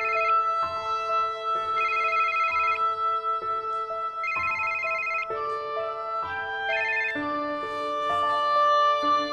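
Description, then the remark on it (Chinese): A phone ringing with a melodic electronic ringtone, a steady sequence of sustained tones stepping between pitches, playing on its own at a fairly loud, even level with no talking. “妈，这么近打什么电话呀？”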